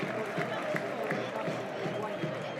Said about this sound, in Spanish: Aplaude el público. Ahora que se retira el futbolista Pimentonero.